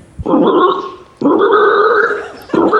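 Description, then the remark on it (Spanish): A person imitates a pig with three loud, rough, nasal grunts, each lasting about a second and starting abruptly, separated by brief pauses, with the last one cut short. “El cerdo.”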